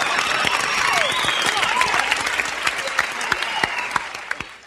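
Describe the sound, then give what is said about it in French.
Sustained audience applause, a dense wash of many hands clapping, gradually thinning toward the end into scattered individual claps as it fades out. “Ah, on connaît pas cette partie-là des applaudissements.”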